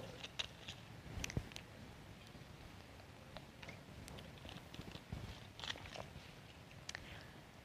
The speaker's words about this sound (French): Prendre une autre petite gorgée d'eau.